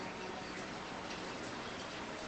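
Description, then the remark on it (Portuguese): Steady rain falls with a dense, hissing patter that stays even throughout, moderately quiet, with no voices or other sounds over it. “Olha que gostoso, acabou de cair uma chuva aqui.”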